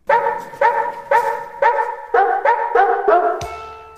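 A dog barks repeatedly and loudly, about eight sharp barks in a steady rhythm, close by, ending with a brief tonal ring as the sound cuts off. No one speaks.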